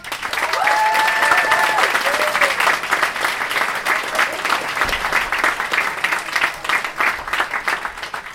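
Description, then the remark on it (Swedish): A comedy show audience on Åland applauds loudly and steadily for several seconds as a comedian is introduced, a dense wash of clapping with a few whoops and cheers rising over it early on, then gradually thinning toward the end. “Ge en jättestor applåd till Henrik Kjellman!”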